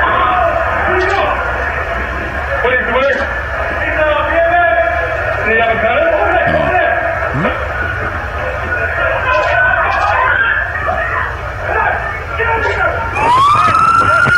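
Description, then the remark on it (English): Police sirens wail steadily in the background of a video of officers responding among slot machines, their pitch sweeping up and down, with indistinct voices and commotion underneath; near the end a siren rises sharply. “So now they're playing the video, and you're hearing the sound in the background of the police.”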